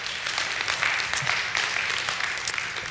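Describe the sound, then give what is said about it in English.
A crowd applauds steadily, a dense, continuous wash of many hands clapping at an even loudness for the whole stretch, with no voices standing out. “We could applaud heaven forever, couldn't we?”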